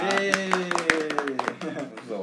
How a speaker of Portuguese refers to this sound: Vamos então vamos lá, uma salva de palmas pro nosso primeiro episódio do Podcast, hein?